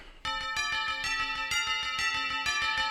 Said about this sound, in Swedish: Mm, nyhetsklocka.